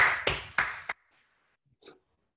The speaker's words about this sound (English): How do we do a big applause uh, via Zoom? I think from, from, my perspective, this worked really well.